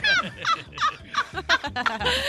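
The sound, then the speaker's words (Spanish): A person vocally imitates a depressed hen, producing a rapid series of short, nasal clucking bursts that rise and fall in a choppy rhythm, moderately loud, ending in a drawn-out squawk. “Hágale como gallina. Pero una gallina deprimida.”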